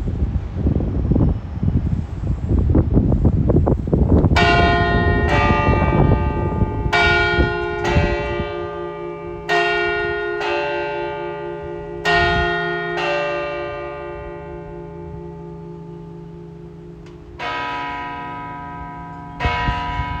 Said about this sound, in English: Every set of bells in the world has a different peal and a different sound. The uh, they have two lots of bells eh, in the Basilica, and you can definitely notice the difference in tone between them. Just listen to this, it's really lovely.